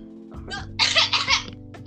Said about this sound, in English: Is it okay uh, if I cough? Yeah. Uh, I don't know. okay, wait. Let me just cough. I don't. I gotta let this out.